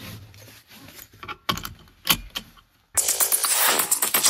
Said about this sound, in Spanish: O subirnos al auto y ponernos el cinturón de seguridad. Y escuchar el clic abajo a la derecha, donde habitualmente el conductor tiene la traba de seguridad.